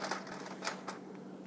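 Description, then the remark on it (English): Ice cubes dropping into a Vitamix blender container, making three or four sharp, bright clinks at an uneven pace over a low steady hiss, fairly quiet overall, with no voices. “Uh, let's put in ice cubes.”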